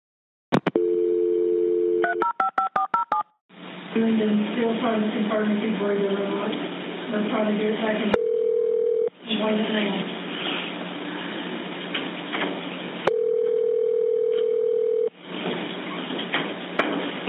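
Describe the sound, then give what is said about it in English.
An employee at the Walker County 911 center calls a caller back: a phone line plays a steady dial tone, then a quick burst of keypad beeps. Long ringing tones follow, separated by stretches of muffled, narrow-sounding voices over the line. “Another employee there at the 911 center calls him back, trying to find out more info while authorities were on the way to the scene.”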